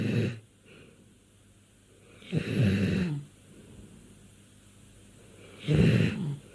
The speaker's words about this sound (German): das, was ihr da gerade hört, das ist ein schlafender Hund. Er ist die Hauptfigur in einer aktuellen Folge des Podcasts Field Recordings von Eleanor McDowell.